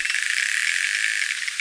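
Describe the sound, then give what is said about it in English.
Underwater clicks from a little male narwhal with a small tusk, packed so tightly they blur into a steady, hissy rattling buzz that holds at an even, fairly strong level throughout, with no voices. “what I'm hearing there are clicks and then like a cry.”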